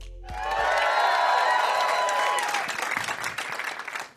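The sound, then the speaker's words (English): A large crowd at Lincoln Hall in Chicago bursts into sustained applause with cheers and whoops, loud and dense throughout, then tapers off slightly near the end. “But I have to say, my enthusiasm, my excitement, for chatting with the crowd at Lincoln Hall in Chicago was undiminished.”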